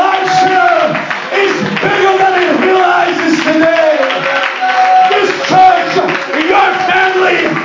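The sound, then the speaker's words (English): An audience claps hands in worship in a steady, continuous rhythm beneath a loud wash of many voices singing and shouting together. “Come on, let's clap our hands and let's worship Him.”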